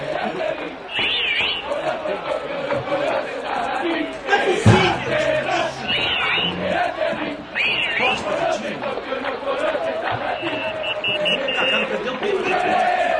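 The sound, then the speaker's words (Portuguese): A large crowd of football fans chants a mocking taunt in unison, loud and rhythmic, with the mass of voices rising and falling over a steady roar of the stadium. “Então esse próximo grito é uma grande provocação.”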